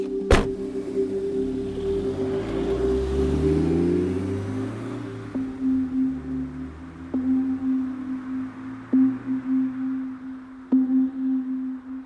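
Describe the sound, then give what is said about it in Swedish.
After a shooting, a getaway car's engine revs and accelerates away following a sharp bang at the start, its rising drone fading into a steady low hum with faint regular ticks, no voices. “Sen fort tillbaka till flyktbilen som kör iväg.”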